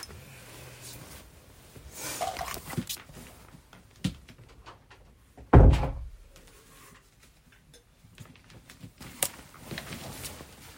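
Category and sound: household object, door being closed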